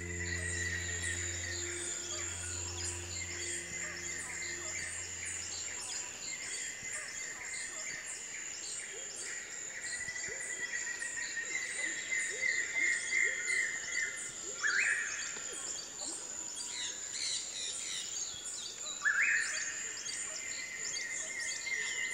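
A bird sings a few metres away in the Amazon rainforest during the morning chorus, repeating bright whistled phrases over a dense chorus of chirping birds and steady insect buzz, with a low hum fading out early on.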